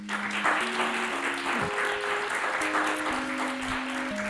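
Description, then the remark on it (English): A live audience in Chicago claps steadily and densely throughout to welcome the guests at a recording, a sustained wash of many hands with a few held tones ringing faintly underneath, no voices coming through. “And speaking of a live audience, yes, we have a live audience, and let's let them express their presence here for this recording by putting their hands together to make some noise to welcome our poem talkers.”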